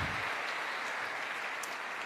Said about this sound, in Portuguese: E aqueles que creem, glorifiquem ao Senhor com uma forte salva de palmas a Ele, a Ele.